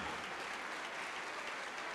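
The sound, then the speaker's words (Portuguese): Sustained applause from a large church audience as debtors accepting remission come forward, a dense, steady clatter of many hands clapping at once without pause, fairly loud and even throughout. “Vamos aplaudir, igreja, vamos aplaudir mais.”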